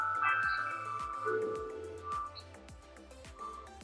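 Outdoor clock bells chime a slow melodic sequence marking a quarter to the hour, each ringing tone overlapping and lingering as the next strikes, heard at moderate volume with no one talking.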